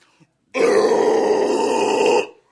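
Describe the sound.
A single sustained, gritty vocal growl with a raspy, distorted texture, held loudly and steadily for under two seconds before cutting off, demonstrating a distorted vocal drive singing technique. No words are spoken.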